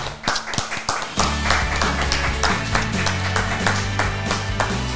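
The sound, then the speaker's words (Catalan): Steady rhythmic clapping from a studio audience, sharp regular claps keeping a beat, with a low sustained musical tone joining in after the first second and continuing underneath. “Enric Oquer, ara sí, un aplaudiment, tots des de casa, des d'aquí”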